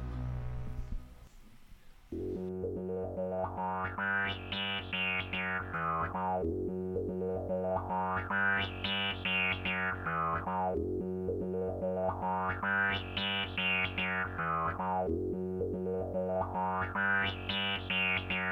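Instrumental guitar band music plays steadily with no vocals, a full, loud mix built from repeating phrases that swell upward in pitch and fall back every few seconds.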